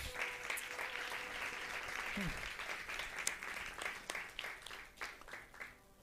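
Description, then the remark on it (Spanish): An audience in a church service applauds Jesus, many hands clapping steadily in a dense, rapid wash that stays loud for the whole stretch, with a brief voice rising over it midway and the clapping thinning slightly toward the end. “es un aplauso a Jesús.”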